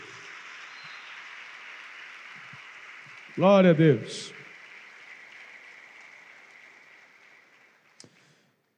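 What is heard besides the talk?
audience applauding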